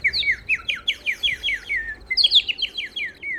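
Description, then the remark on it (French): Someone imitates birdsong to distract guards, with two quick runs of repeated, downward-sliding chirps, about eight notes each, separated by a short pause. The whistled calls sound clear, with no talking. “Je vais distraire les gardes avec mes chants d'oiseaux.”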